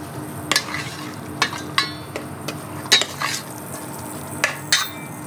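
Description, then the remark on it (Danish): Metal kitchenware clanks and scrapes as a pot with a little oil is set on a stovetop to heat to about 100 degrees, with several sharp clinks spaced irregularly over a steady low hiss, without any talking. “Men øh, lad os sætte en gryde over og ja.”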